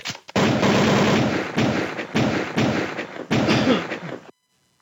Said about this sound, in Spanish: Que esos balazos se fueron atrás de la pared, no sabemos si ha pegado a alguien